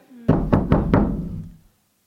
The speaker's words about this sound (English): For example, here's to ignoring the unlikely knocking upon our upper story window.